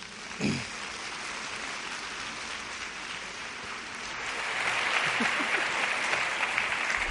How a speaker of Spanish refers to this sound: Con un fuerte aplauso, adelante.